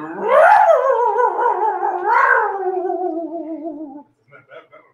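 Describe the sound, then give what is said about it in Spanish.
An unhappy dog howls in long, wavering rising and falling tones for about four seconds, loud, followed by a few short, quieter yips or whimpers. “Es un perro picudo, no está contento el perro.”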